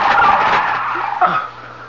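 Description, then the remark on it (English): A loud flock of flamingos in a frantic attack on people, a dense din of harsh squawks and flapping wings that thins out and fades near the end as the birds suddenly disappear. “The flamingos. The birds. They they disappeared as suddenly as they came.”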